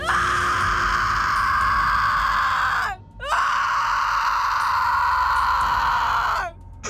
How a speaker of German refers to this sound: Plötzlich fängt die Frau hinten im Zimmer laut und schrill an zu schreien. Sie, schre sie schreit nach Leibeskräften um Hilfe.